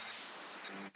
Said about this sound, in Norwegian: Det var ringeklokka.